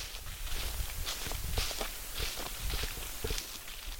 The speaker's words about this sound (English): We're standing in the wilderness near the Hickory Ridge Fire Tower, walking along the gravel path in the thick forest. We can hear the sound of leaves crunching beneath our feet.